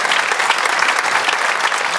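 Steady audience applause, a dense wash of many hands clapping at an even, loud level throughout the two seconds, with no voices standing out.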